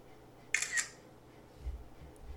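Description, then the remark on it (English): A crisp camera shutter click, a quick double snap of a photo being taken, clear, followed by soft low rumbles. “I'll just take a photo of her and maybe she'll stop.”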